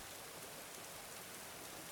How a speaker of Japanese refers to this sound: 1年半前の雨が滴る6月